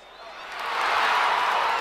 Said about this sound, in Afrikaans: Neo kyk hom vierkantig in die oë en hy skop die bal doelgerig tussen die Diamond speler se bene deur. Die toeskouers juig opgewonde.